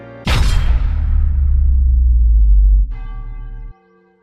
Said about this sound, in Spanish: El sacerdote abrió los ojos, las campanas repicaron y a pesar de ser un sonido que le debía resultar familiar, por escucharlo varias veces al día, las de esa tarde fueron diferentes,